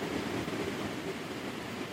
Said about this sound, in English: That is the sound of crashing waves. This weekend we're down in Rosarito, Mexico, enjoying Baja Beach Fest, and we are committed to keeping our episodes going.